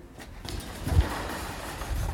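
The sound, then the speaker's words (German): A metal construction fence is shaken, giving a noisy, clattering rattle that swells to a loud jolt about halfway through and keeps jangling unevenly to the end, with no talking. “Hier steht ein Bauzaun.”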